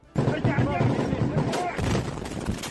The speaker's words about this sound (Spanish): deje paso a otro tipo de disparos y de explosiones.